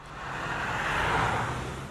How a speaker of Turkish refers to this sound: Erken yola çıkanların sayısı fazla olunca yollarda yine trafik yoğunluğu oluştu.